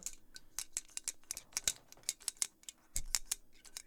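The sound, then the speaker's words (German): A small metal tab rattles inside a shaken Red Bull can, sharp tinny clicks in a quick, uneven rhythm, fairly quiet, with no talking. “den Deckel von deinem ja. Red Bull reingeschmissen und jetzt trinkst du's?”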